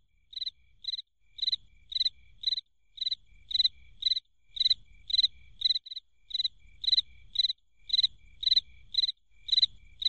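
Crickets chirp steadily in short, bright, evenly spaced pulses, roughly two per second. They sound clear above a faint low rumble, with no voices.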